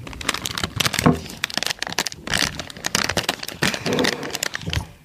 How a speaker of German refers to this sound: Steht drauf, ne? Muncher Green Peas. Green so Erbsen. Erbsen. In der Tüte. Ja, klingt jetzt erstmal nicht so schlecht. Klingt merkwürdig. Mach mal auf.